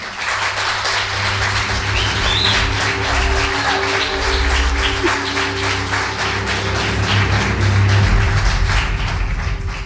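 An audience at a live radio show in Logroño applauds steadily for about ten seconds, a dense, even crackle of many hands clapping at once, with a low steady hum running underneath. No one speaks.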